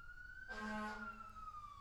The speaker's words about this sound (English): Oh my goodness. That's a fire engine. It is. Is our is our building on fire? It is not.